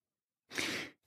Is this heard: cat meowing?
no